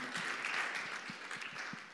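Audience applause fills the whole moment, a dense wash of many hands clapping steadily at moderate volume, with a few sharper individual claps standing out. No one speaks over it.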